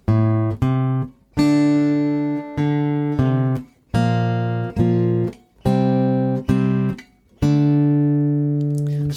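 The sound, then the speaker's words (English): An acoustic guitar plays a riff without its rhythm as a string of about ten plucked notes and chords, each ringing out clearly, evenly spaced without any groove or swing. No one speaks. “that's what it would sound like if we played it kind of without the rhythm.”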